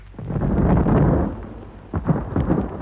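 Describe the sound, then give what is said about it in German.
A deep, rolling explosive boom from a quarry blast set off with lit fuses rumbles heavily for about a second, then fades into scattered thuds and crackles like falling rock. “Das Signal des Schießmeisters, die ersten Lunten glimmen, die Steinmetzen springen von Felsstück zu Felsstück in ihre Unterstände.”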